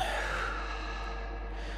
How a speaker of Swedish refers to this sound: Han lugnar ner situationen, försöker sedan att dämpa sin egen stress. Djupa andetag in genom näsan, ut genom munnen.